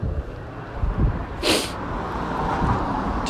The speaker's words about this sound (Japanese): と車通りが多いところ来てしまいましたまあいいやでもこのまま話しますはい